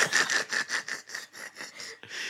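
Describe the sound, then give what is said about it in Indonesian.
A biscuit packet being opened, heard as a steady run of bright, crinkly plastic rustles, about eight quick bursts in a row, with no talking over them. “Ada teman kita lagi buka biskuit.”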